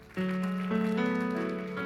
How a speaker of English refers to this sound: Wasn't that good? Give, give her a hand clap. Isn't that good?